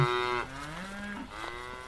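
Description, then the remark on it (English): A calf lets out long, drawn-out moos that waver and slide in pitch, fairly loud, with a second overlapping bawl and no talking; three calves are feeding on clover behind a fence. “I meet three soft calves with long lashes and knobby knees feasting on clover as I walk towards our camp spot.”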